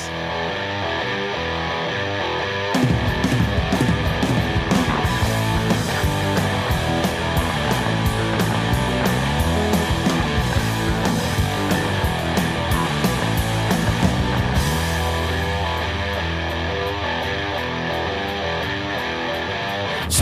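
A loud rock song with distorted electric guitar, steady drums and bass; a sparse intro gives way to the full band around three seconds in, driving on continuously, then thinning near the end.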